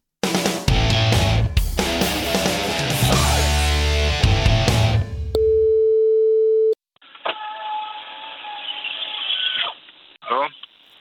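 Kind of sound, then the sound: signal or alarm, telephone ringing tone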